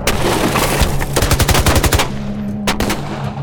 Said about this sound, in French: Ramon Arellano et ses hommes sautent du véhicule et se mettent à tirer comme des chiens enragés.